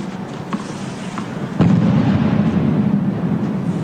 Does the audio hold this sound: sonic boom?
yes